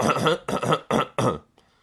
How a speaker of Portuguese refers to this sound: desculpem lá agora, depois desta tosse fiquei aqui meio...